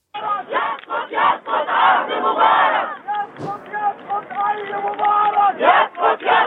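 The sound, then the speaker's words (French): A large protest crowd during the Revolution chants Arabic slogans against Mubarak in loud, rhythmic unison, many voices shouting together almost without pause, with a brief sharp crack partway through. “Alors on va écouter maintenant des, des sons de la Révolution que vous avez euh, sélectionnés pour nous et que vous allez nous commenter juste après.”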